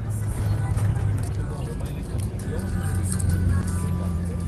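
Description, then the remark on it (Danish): Steady low engine rumble and road noise from inside a moving bus travelling between the capital Yaoundé and the commercial capital Douala, a constant droning hum with rattling hiss on top and faint, indistinct voices mixed into the background. “så sidder jeg i, i selvsamme samme bus på, på selvsamme samme strækning mellem øh, hovedstaden Yaoundé og så den, den kommercielle hovedstad øh, Douala.”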